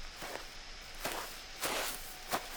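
Four footsteps of one person crunch along a road at night at an uneven walking pace. Each is a soft, scuffing thud over a steady background hiss, with no voices.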